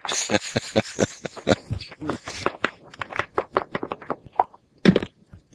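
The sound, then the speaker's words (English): Dice rattle in an old dice cup, a rapid, dense run of hard little clacks for several seconds, ending in a louder clatter as they spill out, then a few faint taps. “Wow, that sounds like you're using a dice cup.”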